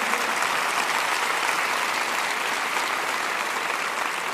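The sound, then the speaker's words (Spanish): A crowd at a Bible reading applauds steadily for about four seconds for the people watching online and on television, a dense, even wash of many hands clapping at a constant loud level with no voices standing out. “Oigan, denles un buen aplauso a los que están por, bueno, por internet y por televisión también.”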